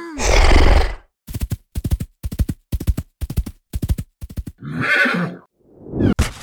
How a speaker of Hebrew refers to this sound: היי, היי, סוס טוב, סוס נחמד, אה, אל תבעט בי. אאוץ'!